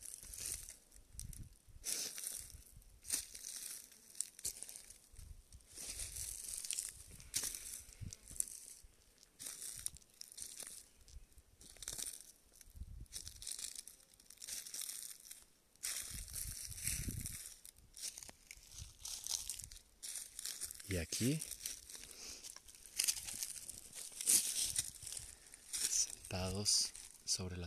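Dry leaves crunch and crumple in irregular bursts, a steady crinkly rustle with sharper crackles scattered throughout, as if being handled or stepped through.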